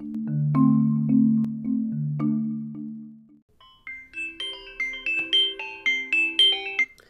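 A phone ringtone plays on its own: a few low, sustained electronic tones give way to a quick run of bright, chiming notes that climb and repeat in a catchy melodic pattern.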